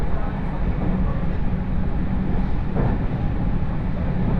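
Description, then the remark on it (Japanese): Steady rumble inside a moving rapid train carriage on the Chuo West Line between Ena and Kozoji, Japan, bound for Nagoya: a continuous low droning roar with faint rattles and a brief swelling whine, no talking, filling the whole stretch at an even level. “耳で楽しむ鉄道旅 中央西線 恵那→高蔵寺”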